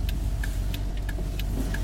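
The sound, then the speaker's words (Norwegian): A man sits in his car and starts the engine, which rumbles steadily in a low continuous drone, with a faint regular ticking, like an indicator, clicking about three times a second over it. “Han setter seg inn i bilen sin og starter motoren, fortsatt skjelven over det han har hørt nyhetsoppleseren fortelle.”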